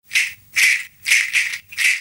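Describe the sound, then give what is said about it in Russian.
A rattle made of giant entada beans, shaken in four steady, evenly spaced bursts of bright, hissing clatter with short pauses between, heard on its own without any voices. “Сейчас вы слышите, как звучит одна погремушка.”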